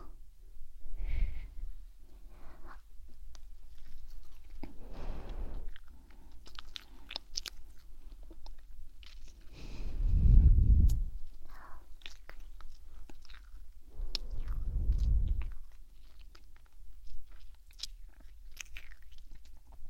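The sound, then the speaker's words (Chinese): Soft, wet kissing sounds come in four separate bursts spaced several seconds apart, with quiet breathy mouth noise in between and no talking. “刚刚你听得我很舒服，我是在夸你，所以再亲亲我，好不好？”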